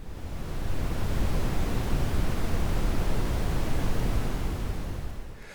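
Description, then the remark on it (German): Wind rushes steadily through copper beech leaves, a dense, bass-heavy rustling hiss with softer highs that swells in, holds evenly for several seconds, then eases off. No voices. “Das Rauschen der Rotbuche hat einen kräftigen Bass und ist in den hohen Frequenzen etwas schwächer.”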